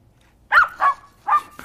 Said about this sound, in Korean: 아유, 귀여워. 예. 아주 귀여운 음, 꼬마 강아지 소리입니다.